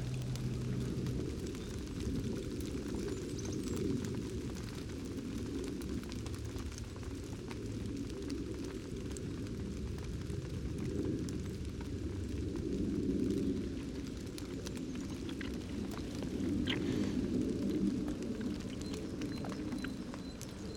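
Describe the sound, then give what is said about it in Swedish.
Steady, loud outdoor noise with a deep rumble of wind buffeting and a constant hiss and patter of rain throughout, with no voices. “Och det har slutat regna.”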